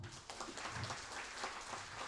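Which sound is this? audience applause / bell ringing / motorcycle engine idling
audience applause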